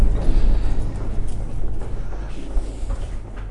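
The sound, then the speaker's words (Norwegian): A heavy prison door at Oslo prison swings open from the visiting room out into the corridor with a low, steady rumbling scrape that lasts several seconds, loud, with no one speaking. “Nå åpner vi jo døra fra besøksrommet og ut i gangen.”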